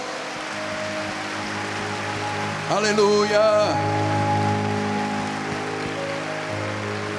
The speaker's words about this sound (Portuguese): Vamos dar um aplauso.